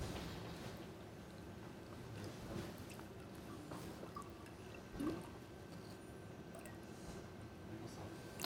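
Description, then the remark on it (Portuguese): Water pours into a glass in a steady stream for several seconds, a continuous liquid rush with a brief louder splash partway through. “Espera aqui um bocadinho de água, senão...”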